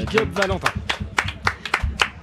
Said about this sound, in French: Merci, on peut l'applaudir là tous ensemble